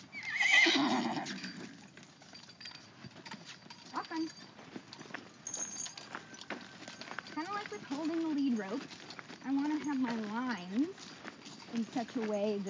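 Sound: horse walking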